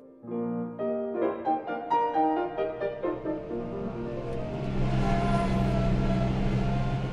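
A few seconds of bright, stepping melodic tones give way to a tractor's steady, low engine rumble that swells and holds loud to the end, with no one speaking.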